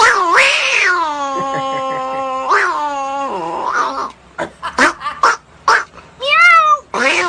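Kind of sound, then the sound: animal, cat meowing and caterwauling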